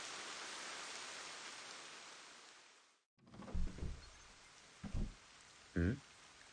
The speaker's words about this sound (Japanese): 今、一階で音がしなかったか雨音で何にも聞こえなかったぞ。